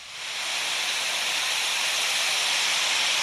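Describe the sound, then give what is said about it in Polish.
A loud, steady rush of storm wind for a storm of 88 to 101 km/h, a hissing roar that swells up within the first half second and then holds constant without gusts or pauses. “Sztorm 88 do 101 km na godzinę.”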